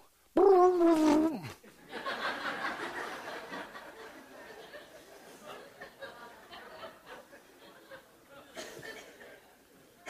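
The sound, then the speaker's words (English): A person imitates a hunting dog baying as it trails a deer down the Hyco River, with one loud, drawn-out howl that slides downward in pitch, followed by laughter and murmuring from a group of listeners. “Sure enough, got down the Hyco River and you hear the dog.”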